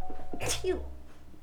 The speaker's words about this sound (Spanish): Eh, saltando obstáculos, voy a estornudar.